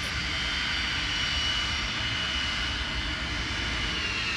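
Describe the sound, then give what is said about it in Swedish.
The engines of a hijacked airplane run at an airport, kept going at the hijacker's demand: a loud, steady, deafening roar with a broad hiss and a faint high whine that holds throughout without pause. No voices are audible over the noise. “Man och hustru försöker överrösta de högljudda motorerna”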